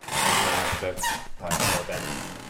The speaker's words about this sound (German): Im Treppenhaus zur Wohnung im dritten Stock knarrt es noch wie damals, 1968, 69, als … hier mit seiner Freundin Kathy Etchingham lebte.